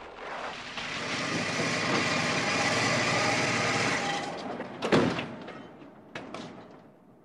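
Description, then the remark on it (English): A blue car's engine hums steadily as it approaches slowly, then drops away as it comes to a stop outside a house, followed by two sharp clunks like a car door. No one speaks. “A blue car, which Nicholas recognized immediately, approached slowly, stopping outside old Simpson's house.”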